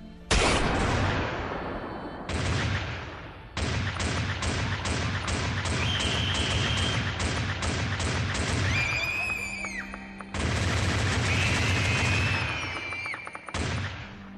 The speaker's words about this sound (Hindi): फिर उस सन्नाटे को गोलियों की आवाज़ बच्चों और औरतों की चीखों ने भर दिया सारा का सारा मैदान खून के रंग में रंग दिया गया सिपाही लोगों पर बेतहाशा गोलियां बरसाते रहे एक राउंड के बाद दूसरा दूसरे के बाद तीसरा तीसरे के बाद चौथा